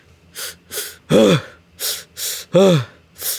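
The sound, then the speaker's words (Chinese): A voice imitates the heavy, exhausted panting made while climbing stairs to around the tenth to fifteenth floor: loud, quick breaths in a steady rhythm, two hissing breaths followed by a strained, voiced gasp, a pattern that repeats with no talk. “然后我在往上层，大概到第十层到第十五层的时候，我的喘息声跟呼吸声会变得超大声，有点像是这样子”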